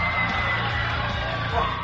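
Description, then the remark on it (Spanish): An applause sound effect: a crowd applauds and cheers in a steady, dense roar of clapping and whoops that stays loud for about two seconds, with no clear speech on top. “te, te lanzo unos aplausos.”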